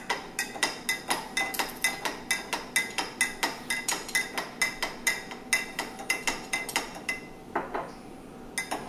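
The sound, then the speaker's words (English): A spoon stirs a mixture in a bowl, knocking against the side in a steady, quick rhythm of bright metallic clinks, roughly three per second, with no one talking. “And then I'm gonna do another tablespoon of, yeah, and you just wanna keep stirring that.”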